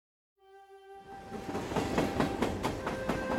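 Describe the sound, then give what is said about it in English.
A train horn sounds briefly, then a train rolls along the rails with a steady, rhythmic clickety-clack of wheels growing louder, as Carry Nation rides it out of Enterprise, Kansas, on January 24, 1901. “On January 24, 1901, 55 year old Carry Nation rode a train out of Enterprise, Kansas.”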